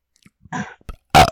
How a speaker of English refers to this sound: I'm sorry. I thought I was going to burp